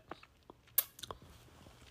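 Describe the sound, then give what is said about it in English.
Chewing and swallowing an egg sandwich, with wet mouth clicks and a soft crunch, irregular bites over a quiet background. No one speaks. “I'm like eating as I record, which is so unprofessional, but girls gotta eat”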